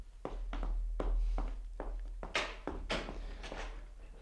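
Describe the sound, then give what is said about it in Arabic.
Footsteps walking toward an apartment door at a steady pace, about eight or nine firm heel-falls in an even rhythm, with a low continuous hum underneath and no voices. “آه لقد حضر الحمالون الذين سينقلون الأثاث يخرج هوتس في اتجاه باب الشقة”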